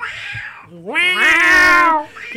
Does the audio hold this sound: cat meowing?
yes